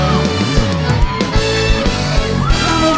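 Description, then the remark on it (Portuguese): A crowd of single young women screams and whoops with high, rising shrieks, loud and sustained over pounding, bass-heavy music for the whole stretch. “O grito das meninas sorteiras!”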